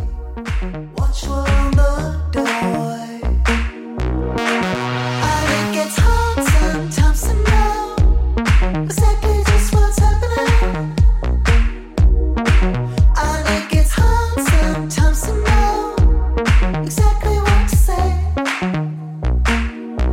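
An upbeat pop track, a band's new song, plays loudly and steadily, with a punchy repeating beat, heavy bass and layered synths driving throughout without any talking.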